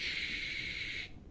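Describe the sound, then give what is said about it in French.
A voice imitates the static of a television with no channel, a steady, loud hiss like a drawn-out "shhh", held for about a second before cutting off abruptly. No other talking is heard. “Quand vous n'avez pas de chaîne sur la télé, ça fait...”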